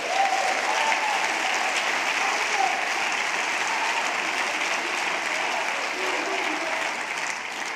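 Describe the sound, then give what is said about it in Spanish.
A crowd gives sustained, loud applause to the Lord: a dense, steady roar of many hands clapping at an even loudness for several seconds, with no talk over it. “Si quieres, darle un aplauso fuerte al Señor.”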